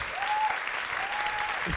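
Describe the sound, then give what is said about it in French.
An audience applauds a woman from the audience who has been asked to stand up, with steady, dense clapping that fills the whole moment at an even loudness, with a faint tonal whistle-like line drifting through the noise. “On l'applaudit.”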